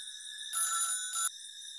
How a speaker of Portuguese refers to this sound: O telefone também toca.